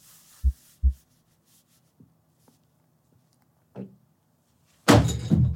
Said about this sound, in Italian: come facciamo a sentire le nostre sensazioni interne? Cioè tipo il battito cardiaco, perché lo sentiamo, no?